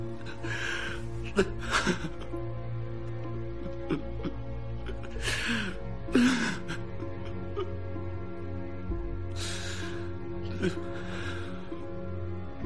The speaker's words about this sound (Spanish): Ella llora.